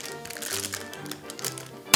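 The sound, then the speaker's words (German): Crinkly rustling of plastic packaging with scattered clicks and crackles as a bag is cut open, ending in a sharp, loud tearing burst. No one speaks. “Ich äh, schneide hier gerade die Tüte auf.”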